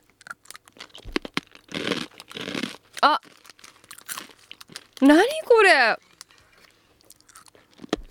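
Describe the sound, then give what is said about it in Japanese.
Individually wrapped salt-dare flavored arare rice crackers crunch in a quick series of crisp, dry bites, with the plastic wrapper crinkling at the start; a short exclamation and a brief sung-out voice break in midway. “あてかねあられをこの個包装にしてくれるとすごい助かる 大きいのにドーンと入ってるとなんかこうしけちゃったりするからいただきます”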